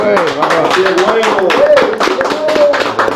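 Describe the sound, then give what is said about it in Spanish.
Steady applause from a group welcoming Emanuel Félix, a councillor of Santo Domingo Este, dense overlapping claps throughout, with voices talking and cheering over the clapping. “Un aplauso para Emanuel Félix, bienvenido, güey.”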